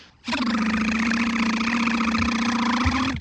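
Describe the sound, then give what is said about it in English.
A voice imitates a whirling saw blade with a steady, buzzing mechanical drone, held at an even pitch for about three seconds before cutting off abruptly. “and uh, the camera cuts to underneath the car, a brilliant shot of a robot whose arm has morphed into a, a whirling saw blade.”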